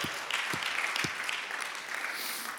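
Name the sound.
audience applauding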